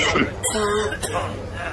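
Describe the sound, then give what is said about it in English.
A couple of short, harsh coughs burst out one after another, with a murmur of voices and laughter-like sounds in the background. “If you don't stop coughing, …, stop coughing.”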